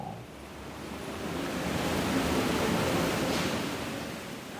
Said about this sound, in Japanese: で上の方まで来るとあの滝がねバーって流れていてでミストあの涼しくするためだと思うんですけどミストがバーって降ってるところであの有名な雲のオブジェなんかがあるとこですね